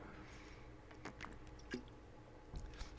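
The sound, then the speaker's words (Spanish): Soft wet mouth noises: a speaker takes a few quiet slurping sips and gulps of water spread over a few seconds, with small clicks and squishes and no talking. “Miren, me tomé un poquito de agua.”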